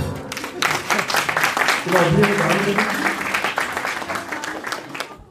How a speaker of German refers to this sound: Wir haben zwei richtige Antworten. Ein Applaus für alle.